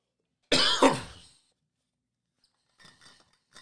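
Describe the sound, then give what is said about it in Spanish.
A loud cough with two quick bursts, followed by a short pause and then a few faint, soft clinks in the background. “Vamos a editar todas estas toses después para el audio.”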